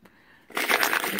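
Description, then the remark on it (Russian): After a brief quiet moment, coins jingle and clink together in a bright, continuous metallic rattle, fairly loud, as part of a money-attracting ritual, with no one speaking. “То есть деньги слышат вот этот звук, звон, звонки, да, и приходят на зов своих братьев”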